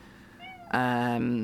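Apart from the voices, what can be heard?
cat meowing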